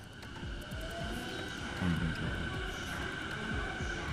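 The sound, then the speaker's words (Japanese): A commuter train running steadily during a commute, heard from inside: a continuous low rumble with a faint electric motor whine over it, moderately loud and unbroken, with no voices. “通勤途中の音なのかな通勤途中送りますって書いてあります。通勤電車ってことでね、これはね。”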